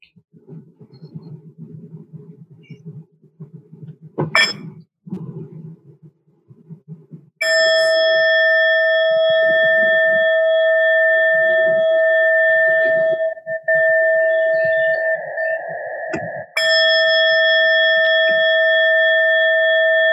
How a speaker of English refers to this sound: The bell um, um, invites us to go back to our true home to that sweet, sweet spot inside. So we'll listen to three sounds of the bell. Then I'll just offer a short settling meditation and then two sounds of the bell to end.